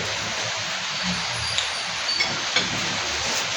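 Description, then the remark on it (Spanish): Rain falls in a steady, even hiss that fills the whole clip, with a low rumble underneath and a few faint taps of individual drops. No one speaks. “puta, la largo a llover.”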